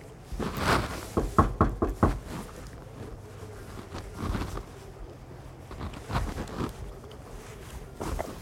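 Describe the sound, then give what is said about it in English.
Someone raps on the front door of a house, a quick cluster of firm knocks followed by a few scattered knocks after pauses. Fairly loud in a quiet setting, with no voices. “A kid in his early 20s answered the door.”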